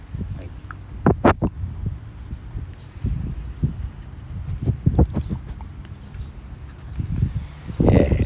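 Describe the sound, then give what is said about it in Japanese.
A pet named Toichiro panting while resting in temperatures above 25 degrees, quick rhythmic huffs repeating steadily throughout, with a few louder breathy bursts and a faint background hiss, no voices. “東一郎くんはそれでもねやっぱり25度超えてますので25度超えるとははははいうねまあ大体20度切らないとダメですねえー、15度20度20度超えるとはは言いますねまあそんな形ではは聞いてもらいましょうかね”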